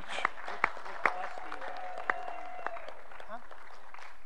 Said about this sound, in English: Uh, just in case he's uh, listening out there, let's have one more huge round of applause for Ed Branch.